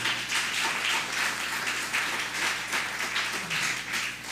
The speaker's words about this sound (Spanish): denle un fuerte aplauso a Sebastián